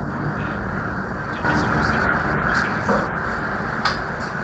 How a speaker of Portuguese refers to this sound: É, Oi. Entrou um caminhão no, no, Passou um caminhão aí.